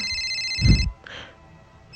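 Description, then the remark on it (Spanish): A telephone rings with a bright electronic trill in two bursts, the first cut off by a low thump, the second starting near the end; clear, with no talking. “Pero el sonido de mi teléfono me despertó.”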